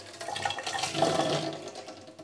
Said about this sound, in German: Genau, da mal Wasser abgießen und gucken, was passiert. Oh, das sieht sehr gut aus.